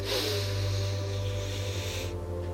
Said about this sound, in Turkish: Ve ikinci nefes düşüncelerimiz için kocaman büyük bir nefes alıyoruz.